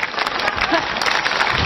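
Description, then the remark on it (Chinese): Steady audience applause for a performer on stage, a dense wash of many hands clapping at an even, sustained level for the whole moment, with a faint murmur of voices mixed underneath. “说心里话，朋友们，你们的掌声很尊贵，可以给那些明星大腕儿，对不对？”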